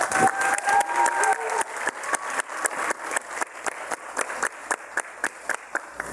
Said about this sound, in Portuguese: Então, quero pedir uma salva de palmas para nossa plateia.